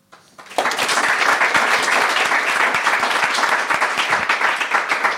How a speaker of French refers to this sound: Merci à tout le monde. J'aimerais un tonnerre d'applaudissements